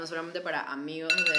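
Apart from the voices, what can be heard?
timer alarm going off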